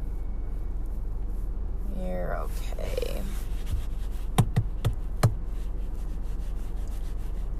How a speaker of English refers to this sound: My car is making some goofy noises.